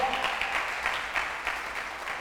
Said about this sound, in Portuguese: Dá um aplauso a Jesus aí.